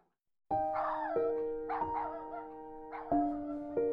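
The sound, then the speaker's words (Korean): A puppy left alone outside a restaurant cries out in a string of high, whining yelps, several in quick succession, loud with no one talking. “배가 터지게 먹고는 식당을 나와 출발하려는데 강아지 울음소리가 들린다.”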